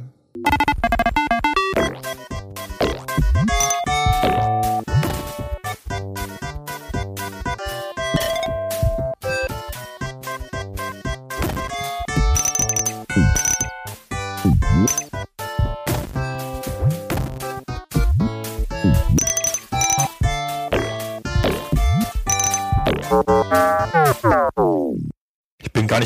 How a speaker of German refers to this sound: Das ist ja nur FM-Synthese, also sind gemachte Töne sozusagen, modulierte Töne, die aber erstaunlich basslastig sind und eine sehr stimmungsvolle, auch leicht cartoonige Atmosphäre erzeugen. Das klingt dann im Spiel so.